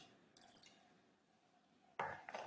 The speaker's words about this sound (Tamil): தண்ணி குடிச்சுக்கிறேன் கை தொண்டை வறந்து போச்சு